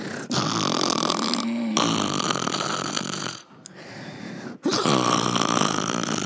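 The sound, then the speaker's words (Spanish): A person loudly imitates the snoring of a grandfather asleep in an armchair: three long, harsh, rattling snore sounds separated by brief pauses, with no other talking. “¿Cuántos roncan así?”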